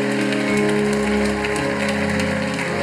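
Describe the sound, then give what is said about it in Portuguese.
An audience applauds to God in a steady, dense patter of clapping that holds at an even loudness throughout, with sustained keyboard chords playing underneath. “aplauso a Ele, a Ele seja a honra.”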